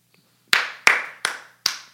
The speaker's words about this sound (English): All right, just clap it up for …. You know what I'm saying? Shout out to ….